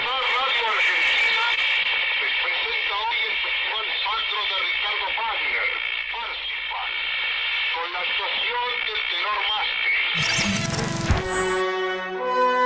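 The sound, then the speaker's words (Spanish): A crackly, tinny voice, a recreation of the Sociedad Radio Argentina's inaugural broadcast announcing Richard Wagner's Parsifal, comes through like an early radio broadcast, thin and hissy with static, then near the end gives way to a fuller, clearer burst of musical tone. “todo listo y a las 20.30 el mismísimo Susini inauguró la radiodifusión diciendo, Señoras y señores, la Sociedad Radio Argentina les presenta hoy el Festival Sacro de Ricardo Wagner, Parsifal. Una recreación, nunca pasó.”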